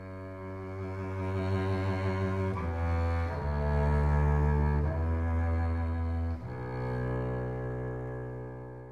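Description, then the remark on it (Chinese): A double bass plays a slow, sustained melody of deep bowed notes, changing pitch every second or two, steady and fairly loud with no voices. “大象先生的低音提琴和小熊捡到的琴形状很像，但是低音提琴的肚子大大的，比小熊的身体还大。”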